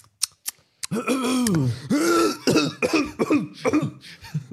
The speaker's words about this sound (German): Also so, so, so, so Corona Husten einfach drin lassen. So. Einfach aufgrund der aktuellen Lage.